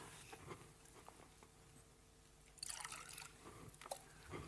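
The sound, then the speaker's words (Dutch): A little water is poured in a short, quiet trickle with a few soft splashes and drips, with no talking. “Ik pak even een beetje water.”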